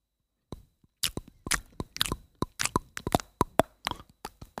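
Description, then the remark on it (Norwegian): Crunchy chewing, a steady run of sharp, crackling bites and crushes repeating roughly every few tenths of a second, loud with no talking. “Jeg tygger sånn.”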